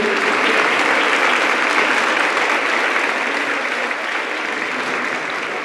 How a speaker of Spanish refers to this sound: Entonces quiero pedirte que te pongas de pie esta, esta, esta tarde. Da un aplauso fuerte a nuestro Dios, sí, dáselo a Él.